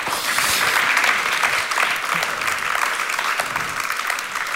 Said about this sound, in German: Vielen Dank dir. Genau. Das ist dein Applaus.